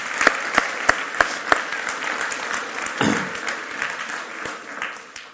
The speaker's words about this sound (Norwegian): Syns jeg vi skal gi en eh, klapp til eh,